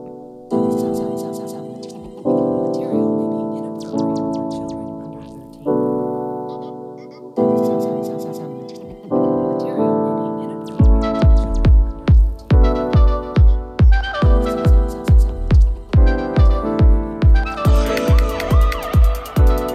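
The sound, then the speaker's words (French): A house music track with underground rap: loud, swelling synth chords repeat in blocks, then a steady four-on-the-floor kick drum thumps in about halfway, with brighter layers building toward the end. No vocals yet. “Donc c'est de, la house avec du rap underground dessus.”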